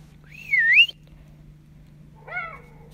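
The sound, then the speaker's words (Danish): A fox yelps twice in the evening: a longer, wavering high-pitched cry, then after a pause a shorter call that drops in pitch, over a steady low hum with no talking. “Altså reven, der ligesom galper op i baggrunden her.”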